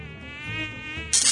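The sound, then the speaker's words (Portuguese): A thin, whining mosquito buzz hums steadily for over a second, then a short burst of hissy noise cuts in near the end. No one speaks. “Quem souber, quem souber qual é o mosquito que voa no quadradinho de oito, me fala.”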